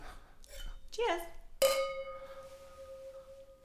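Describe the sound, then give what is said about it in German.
Two wine glasses holding beer meet in a single bright clink in a toast in a hotel room, and the pure ringing tone lingers and slowly fades for about two seconds, following a brief murmur of voices. “Wir trinken Bier aus Weingläsern ich weiß nicht, ob ich es gut oder schlecht finden soll, aber das Wichtigste ist, sonst hat sich nichts verändert.”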